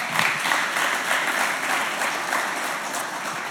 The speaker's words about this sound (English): amen um, yeah that's a clap